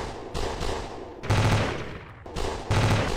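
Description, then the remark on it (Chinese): Rapid, continuous gunfire crackles in dense, loud bursts with no pauses between shots, its intensity rising and falling in waves over a few seconds, as a gun is emptied into a clown doll's head. No voices are heard. “枪声轰鸣，尖笑声终于吱吱啦啦戛然而止，直到将弹夹打空，杜宾还在狂按扳机，而此时小丑的脑袋已经变得支离破碎。”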